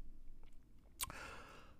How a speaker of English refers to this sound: sip, sip, sippity, sip.